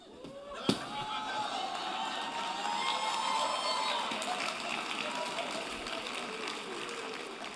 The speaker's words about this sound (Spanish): Y yo grito y escupo y pateo. Ustedes vieron esa pateada que yo le di a la silla. Eso no se ve en toda la iglesia.